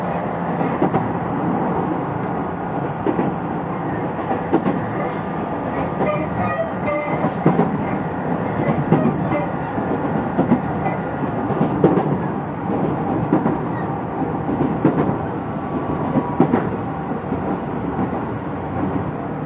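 A Tokyu 6000 series train runs along the rails between Azamino and Oimachi with a steady, loud rumble, broken by scattered clicks and clatters from the wheels and track. No one speaks.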